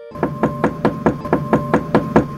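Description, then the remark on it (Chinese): Someone knocks on the door of the village chief's house in a fast, steady run of about ten even raps, each a sharp, moderately loud thud, over a faint constant hum, and no one answers. No one speaks. “然后就不管老怪怎么敲门，村长都不回应了耶。”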